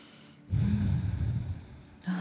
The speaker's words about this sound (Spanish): Tomamos una profunda respiración.